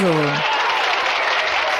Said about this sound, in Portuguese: Que merece o nosso aplauso.